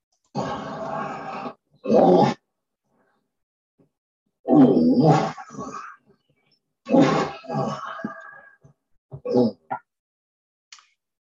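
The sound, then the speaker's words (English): Three separate sets of harsh, wheezy coughs from a cat with asthma, a person with asthma and a horse with asthma, each a loud burst or cluster of hacking sounds with pauses between, the last set shorter and fainter. “The second one was a person with asthma coughing. And the third one was a horse with asthma coughing.”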